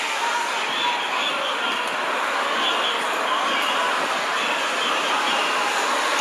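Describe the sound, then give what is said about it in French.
A steady, dense roar of a huge street protest march passing below the speaker's home, a continuous wash of many voices and movement with no single voice or chant standing out. “j'avais pensé à un truc et puis bah, il y a une énorme manifestation qui a commencé à défiler en bas de chez moi.”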